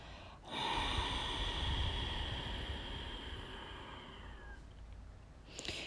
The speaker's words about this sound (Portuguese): Segura. Três. Dois. Um. Expira longo por ambas as narinas.